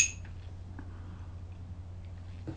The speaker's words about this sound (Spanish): tomar la cucharita y revolver un café que sigue caliente, lo revuelvo para que termine de refrescarse, eso sí, amargo, sin una gota de azúcar